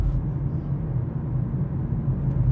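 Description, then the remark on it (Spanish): Steady, low tire-on-road rumble heard from inside a moving car, a continuous muffled drone at even loudness throughout, with no voices over it. “Es que voy dentro y es verdad que oigo la rodadura del vehículo, porque eh, porque la oigo, a lo mejor hasta vosotros la oís, pero es que es el ruido que oigo.”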